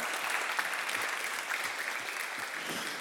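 Steady audience applause, a dense wash of many hands clapping at an even, sustained level throughout, with no voices standing out.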